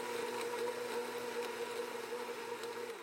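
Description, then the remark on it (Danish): A sports car's engine runs with a steady mechanical whir and a gritty, grinding texture, like a blender chopping something hard, as a collapsed bouncy castle is drawn into it, running continuously with no one speaking. “Langsomt forsvinder mere og mere af den nu helt sammenklappede hoppeborg ind i motoren på sportsvognen, og nu lyder det mest som en blender, der er i gang med at hakke nogle gulerødder.”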